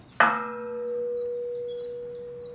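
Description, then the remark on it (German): A cracked bronze bell from Spain, cast in 1824, 80 cm in diameter and weighing 300 kg, struck once for testing, giving a dull, slightly rough clang whose tones fade quickly, leaving one faint humming partial that lingers; faint bird chirps in the background. “Das ist eine Glocke von 1824 und diese Glocke haben wir bekommen für Untersuchungen, weil diese Glocke einen Riss hat.”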